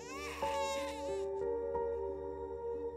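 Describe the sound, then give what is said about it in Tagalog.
A child cries in a high, wavering wail that starts strong and then trails off into a lower, sustained tone, the sound gradually softening over a few seconds. “narinig niya rin na umiyak si Maymay. Umiyak ito pero naglaho rin dahan-dahan ang boses”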